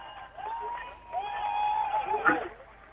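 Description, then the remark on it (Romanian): A crowd in the Opera Square cheers steadily, a broad wash of voices with a sustained shout or whistle rising above it near the end. “Auzim uh, uralele”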